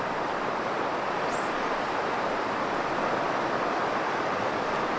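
A steady, broad rush of ocean surf washes continuously against the shore, loud, with no distinct breaks between waves and no voices.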